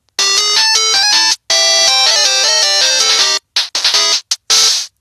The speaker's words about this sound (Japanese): はい、えー、今のがゲームっていう名前のジングルです。